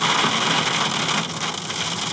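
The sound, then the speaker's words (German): Heavy rain pours down onto a car being driven, a dense, steady drumming and hiss that fills the space, loud, with no voices over it. “Fettes Wetter gerade. Ja, ist natürlich jetzt doof für den Podcast, aber die Natur braucht. Ich glaube, es hat seit Monaten nicht geregnet.”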